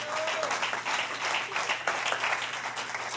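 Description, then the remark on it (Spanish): A room full of people applauding together for the Lord one night, a dense, steady wash of clapping that fills the whole stretch, with a faint voice murmuring underneath. “Denle un aplauso al Señor esta noche.”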